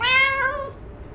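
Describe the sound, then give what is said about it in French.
A hungry cat lets out one long, plaintive meow, its pitch sliding downward before fading into quiet; no one speaks. “ton chat a tellement crié famine que j'ai décidé de l'aider.”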